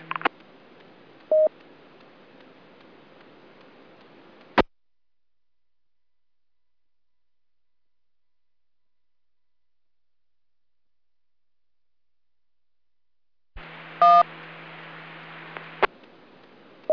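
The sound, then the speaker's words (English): Two bursts of amateur radio net transmission static, separated by a long silence. Each has a short, bright WIRES mode tone at its start covering about the first two or three seconds of the transmission. The tone sounds like a quick telephone-style touch-tone beep over the hiss. “Um, what you hear is a tone, and it covers up about the first two or three seconds of the transmission.”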